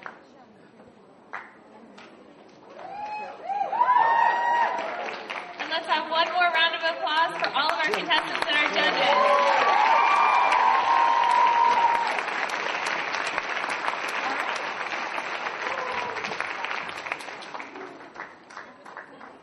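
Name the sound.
audience applause and cheering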